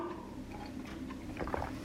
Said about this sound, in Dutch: Eh, ik pak even snel een slokje water. Ik voel een kriebeltje in mijn keel aankomen.